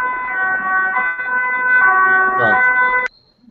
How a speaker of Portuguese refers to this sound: Tem uma ambulância aí, né?